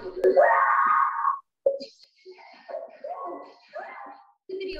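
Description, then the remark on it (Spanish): A woman shopping in a supermarket gives a loud, drawn-out scream that rises and holds for over a second near the start, followed by a string of shorter, quieter vocal cries and sobbing sounds. “Otros compradores procuraban ayudarla, pero solo fueron espantados tras el fuerte alarido de la mujer.”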